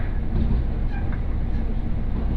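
A local train on the Mizushima Rinkai Railway in Japan, running from Mitsubishi Jikō-mae to Kurashiki-shi, heard from inside the carriage as a steady, continuous low rumble with faint rattling, moderately loud and unbroken throughout.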